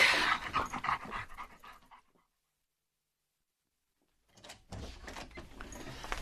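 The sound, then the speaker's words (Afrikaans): A dog named Bixie pants quickly and excitedly in the morning on seeing someone at the front door, breathy rapid huffs for a couple of seconds, then a brief silence before the eager panting starts up again. “wat is dit met die brak?”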